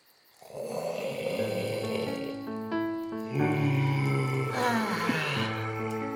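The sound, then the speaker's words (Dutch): A dragon lying down snoring: a deep, growling rumble with raspy, tonal overtones that drones on without pause and swells louder about halfway through, with no talking. “De draak lag flink te snurken.”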